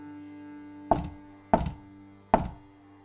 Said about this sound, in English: I was typing, clicking, tapping, clacking, when there came a rap upon the door.